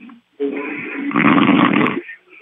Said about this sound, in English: You know that phrase "sawing logs"? Yeah, that's where this comes from, right here.